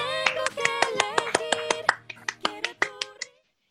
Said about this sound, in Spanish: Todos sabemos de qué habla, ¿no? Nada más y nada menos que Harry Potter. Por favor, un aplauso.